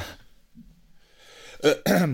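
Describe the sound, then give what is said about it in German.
Two harsh coughs from a person with bronchitis burst out beside the microphone after a quiet stretch of low breathy noise, the second slightly longer and rougher than the first. “Also, ich werde äh, in dieser Folge einige Male neben das Mikrofon husten müssen.”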